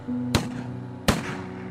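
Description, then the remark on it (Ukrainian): Two sharp gunshots, fired about fifty metres from the engines of the two nearest boats, crack out about three-quarters of a second apart, each with a brief ringing tail, over a steady low engine drone. “Упевнений, що не схибить, Костя дав два постріли за півсотні метрів від двигунів двох ближніх човнів.”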